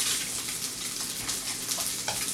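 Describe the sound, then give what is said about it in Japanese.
Steady, loud crackling sizzle of fried rice being stir-fried in a hot pan after salt, pepper and chicken stock are added, with brief scraping bursts as it is stirred; no voices, just continuous frying. “はいいい音しますね炒めていきます”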